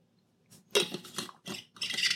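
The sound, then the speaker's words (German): Someone sips filtered water from a Trash Hero Thailand bottle: a short series of wet slurping and gulping bursts, uneven in rhythm and fairly quiet, with no talking. “Ich nehme noch einen Schluck aus der Trash Hero Thailand Flasche.”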